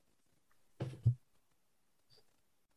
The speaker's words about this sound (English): Don't be uh, don't be clicking your mouse there. No, it says …. I, I um, want I want both hands up where I can see them. Okay, she's clicking her mouse. Um, she's googling.